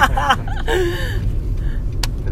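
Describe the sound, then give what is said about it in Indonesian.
A heavy traffic jam on the streets of Jakarta rumbles steadily, with a low engine drone throughout and a few tonal horn-like blasts early on, then a brief sharp burst near the end. “Aduh macet banget nih jalanan Jakarta.”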